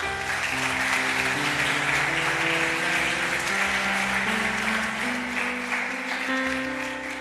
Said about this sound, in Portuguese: Vamos dar uma salva de palmas para Jesus, ele merece.